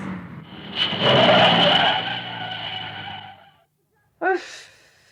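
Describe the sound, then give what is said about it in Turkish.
A car driven by a novice driver brakes hard with a loud, sustained tire screech lasting over three seconds, then cuts to silence before a short breathy exhale. “Ya yan tarafa dikkat et frene bas.”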